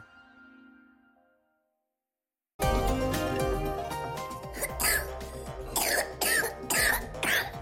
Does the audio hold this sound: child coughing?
yes